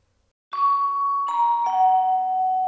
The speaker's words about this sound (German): In dem Moment ertönte ein Klingeln an der Tür.